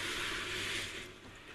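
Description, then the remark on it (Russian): Water is poured into a cooking pan holding a vegetable sauté, a steady rushing hiss lasting about a second before tapering off, with no voices. “Теперь я добавляю сюда воду”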